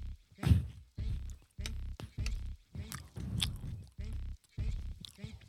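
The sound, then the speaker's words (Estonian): Someone chews gummy candy in a steady rhythm of about six squishy, moist bites with short pauses between them, moderately loud and without any talking over it. “kummikommi tuleb välja pakist või?”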